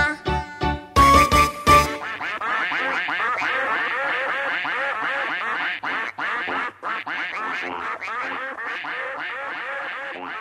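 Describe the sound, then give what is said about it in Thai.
A flock of ducks bathing in a ditch quacks continuously in overlapping, raspy calls, preceded by a few loud, sharp quacks at the start, the chatter staying fairly loud and busy throughout. “กากากา เป็ดอาบน้ำในคู ตาก็จ้องแลดู เพราะในคูมีหอยปูปลา”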